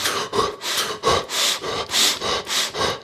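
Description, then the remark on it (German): Rapid, forceful breathing through the mouth in a breathwork technique done lying on one's back, about eight quick breathy rushes in steady alternating rhythm, hissy and fairly loud, with no talking over it. “Ich kann es euch nicht ganz genau erklären, aber das ist eine Atemform, wo ihr euch auf den Rücken legt, dann in einer gewissen Atemtechnik sehr schnell durch den Mund atmet und das für eine ganz, ganz lange Zeit.”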